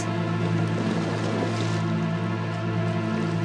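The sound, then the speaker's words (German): Steady rushing water with a bubbling, gurgling texture, continuous and fairly loud throughout, with a low constant hum underneath and no voices. “Aber hören können wir etwas. Das Rauschen und Gurgeln des Wassers.”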